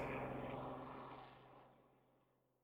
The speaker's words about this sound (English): Plane going overhead.